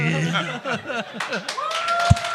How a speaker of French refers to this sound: C'est pas fini. Ah, c'est pas fini. On ah, vous avez applaudi non, trop vite.